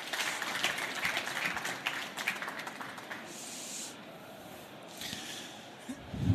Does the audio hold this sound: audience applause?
yes